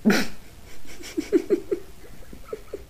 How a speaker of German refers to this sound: ich finde es ja schon faszinierend, wie lange so kleine Hunde in irgendwelche Sachen reinbeißen mhm. können.